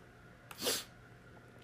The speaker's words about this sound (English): Okay, uh, you'll ignore my sniffle there. I've got a little bit of a sinus issue.